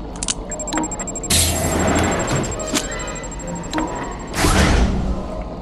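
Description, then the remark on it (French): A door is slammed shut with a heavy thud after a thermal detonator is thrown, and a second loud bang follows a few seconds later, over a steady faint high-pitched whine and rumbling background noise. “Un détonateur thermique Mais alors tu serais secrètement cool Je lance et tu refermes la porte.”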